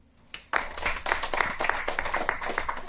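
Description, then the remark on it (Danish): An audience, asked to clap once if they are wearing dry trousers, breaks into a burst of applause, many hands clapping at once in a dense, steady crackle that starts abruptly and carries on loudly for a few seconds. “Prøv at klappe en gang, hvis I har tørre bukser på.”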